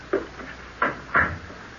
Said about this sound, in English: No, we better look at him first. I'll close the door.